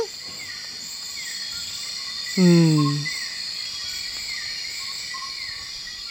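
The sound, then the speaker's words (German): A dense, steady wall of high-pitched insect chirping and buzzing fills a nighttime rainforest, with a brief low, descending call rising out of it partway through. A voice murmurs once. “Das ist meine Lieblingsumgebungsaufnahme. Das Spannung. ist Regenwald bei Nacht.”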